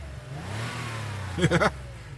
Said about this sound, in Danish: Prøv lige at høre den acceleration. Hold da kæft, det trækker noget.